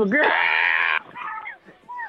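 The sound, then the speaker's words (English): A voice imitates a slow-motion movie scream from the film Bloodsport: one loud, drawn-out, strained yell that rises and holds for about a second, followed by brief talking and laughter-like sounds. “like the yeah, slow John motion screaming and shit.”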